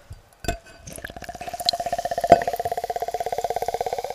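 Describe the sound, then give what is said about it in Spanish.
A drink can cracks open with a sharp pop, then a rapid, steady sputtering fizz rattles on for several seconds like a string of tiny bursts, with no talking. “Se ha abierto regular esta lata.”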